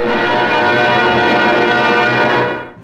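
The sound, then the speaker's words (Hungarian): Metro construction workers clink glasses in a celebratory toast, from a 1970s newsreel: a dense, bright ringing of many overlapping chimes that holds steady and loud, then fades away at the end. No one speaks. “A metró építői ezen a napon együtt ünnepeltek, és további munkasikerekre kocintottak.”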